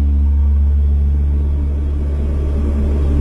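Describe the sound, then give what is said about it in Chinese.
Loud, steady engine drone of a Y-8 transport aircraft heard from inside its front panoramic glass navigation cabin during a high-plateau training flight: a deep, continuous rumble with layered low hums that holds an even level throughout, with no voices. “那么接下来，在不影响安全飞行的前提下，我也将进入到运八飞机的全景玻璃导航舱。”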